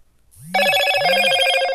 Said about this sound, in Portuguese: Ô, oh, notificação, filha da puta. Foi mal, galera. Desculpa, desculpa aí se vocês escutaram a notificação. Mas acabei de colocar no Não Perturbe.